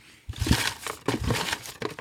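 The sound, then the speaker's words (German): Small handwritten paper slips, each bearing a social media comment, rustle and crinkle in a steady stream of irregular, crackly bursts that start abruptly and continue without any talking. “So, ihr hört es vielleicht, ihr hört es vielleicht, ich raschel mal.”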